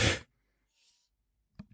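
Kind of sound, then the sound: human body sound, sneeze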